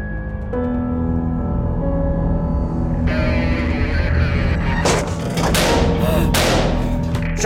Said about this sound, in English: shots fired! Officer down! Officer down! I heard a gunshot, felt the bones in both my arms break. Didn't even realize that it knocked me on my back.